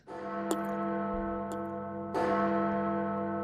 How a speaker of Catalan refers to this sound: o les campanes que sonen en cada poble i ciutat.